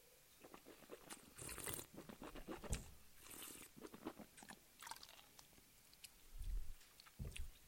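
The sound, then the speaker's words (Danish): Someone takes a quiet sip of a drink, with soft slurping and wet mouth sounds, a couple of brief swallows, and no talking. “Vi tager lige en øh, slurk mere her.”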